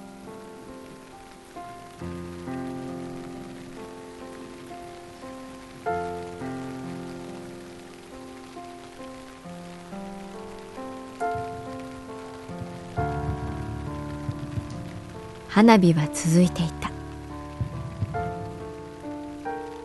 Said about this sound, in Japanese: 追い打ちをかけるように雨が落ちてきた神崎くんがビニール傘を持ち美香ちゃんにかからないようにする